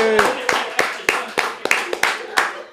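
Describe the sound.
Steady, rhythmic clapping, about three or four sharp claps per second, with a brief shout at the start and voices mingling underneath the applause.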